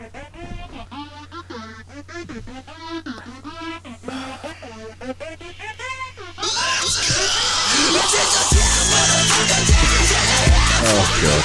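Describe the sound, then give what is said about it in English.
Strained, wailing screamed vocals over a low droning tone, then the song erupts into loud, dense distorted instrumentation that carries on to the end. “Can we hear like just a wee clip of, just to get an idea of the screaming?”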